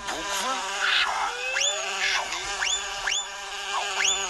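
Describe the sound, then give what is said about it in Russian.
A voice imitates a bumblebee's buzzing while taking the bee's part in a poem: a steady, droning hum with repeated rising swoops in pitch, continuing for a few seconds without any words. “читает стихи за э, этого за пчелу, правильно? Шмель.”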